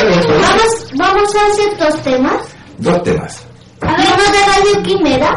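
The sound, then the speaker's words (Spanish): A person speaks in Spanish during technical problems, their voice carrying an echo that smears and lingers behind each loud phrase, with brief pauses between bursts of speech. “Oye, bueno, eh, mientras superamos estos problemas técnicos, nos dicen que se escucha con eco la voz, así que ahí también tenemos un, pequeño tema”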